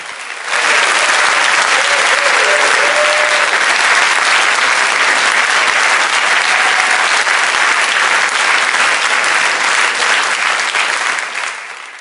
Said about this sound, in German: Darf ich euch einladen, Gemeinde, mal einen Applaus für die Livestream-Besucher zu geben?